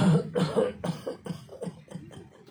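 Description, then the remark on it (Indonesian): A voice imitates a series of coughs, about seven short bursts in quick succession that step downward in pitch like a descending scale, fading slightly toward the end. “Yang muda juga mati yang mati itu yang sakit-sakitan yang kalau batuk itu bisa do re mi fa sampai do rendah ya”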